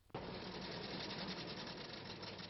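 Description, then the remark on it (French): A steady, loud mechanical chugging of old taxi engines running, some 250 taxis driving through Paris at nightfall on 6 September 1914, with a rapid rattling rhythm that starts abruptly and continues unbroken, with no voices. “Oui, 250 voitures qui roulent dans Paris la nuit tombée, le 6 septembre 1914, cela s'entend.”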